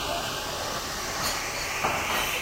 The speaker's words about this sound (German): Nee, jetzt haben wir eine Kaffeemaschine. Aber die, Gast, die, die, die Kaffeemaschine ist was lauter als deine Gastherme. Das heißt schon was.